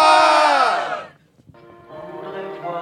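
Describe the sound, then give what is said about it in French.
A crowd yells "Simone", the name of a dog, together in a loud, drawn-out unison shout lasting about a second, louder shouting meant to get the music played, which trails off into a brief lull before softer tonal sounds come in. “Fait qu'à go, vous criez Simone, puis plus vous criez fort, plus il va mettre la toune.”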